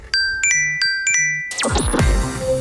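A bright electronic smartphone reminder chime, signalling that it is time to go to sleep, plays a quick pattern of ringing tones, repeating twice in a short melodic sequence, then gives way to a busy jangling burst of mixed sound.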